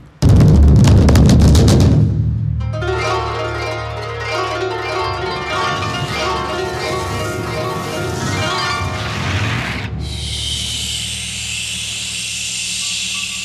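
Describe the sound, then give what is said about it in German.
A loud roaring blast of stormy wind bursts in as Yuki Onna, the snow woman, enters a room wrapped in an icy whirl of snow, settling into a sustained howling gale with eerie ringing tones, then thinning to a steady, hissing rush of snowy wind. “Inzwischen hat Yuki Onna, die Schneefrau, die List der schönen Füchsin bemerkt und betritt, in einen eiskalten Schneewirbel gehüllt, unter wütendem Sturmgebraus den Raum.”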